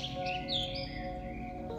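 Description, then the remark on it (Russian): Soft birdsong chirps drift over a steady, dense background hum in a pine forest, with a few brief high whistling calls rising and falling; no one speaks. “Сейчас есть только вы, лес и пение птиц.”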